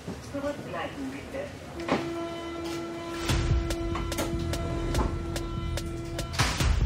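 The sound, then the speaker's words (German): Underground subway station ambience at U-Bahnhof Friedrichstraße: a steady droning tone as a train pulls through, with low rumbling, rhythmic clacks of wheels over rail joints, and faint muffled voices at the start. “U-Bahnhof Friedrichstraße, drei Tage nach dem brutalen Überfall auf einen 29-jährigen Mann.”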